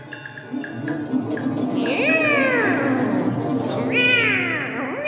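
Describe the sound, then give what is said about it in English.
A big black cat meows in two long, drawn-out, wavering cries, the second rising then dipping, loud over a steady low murmur of background noise. “A big black cat jumped and attacked.”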